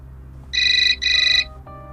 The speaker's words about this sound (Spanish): Cerró sus ojos, no queriendo dormir, sino para ahuyentar las imágenes que buscaban arrebatarle la poca cordura que le quedaba, hasta que el timbre del teléfono lo hizo abrirlo sobresaltado.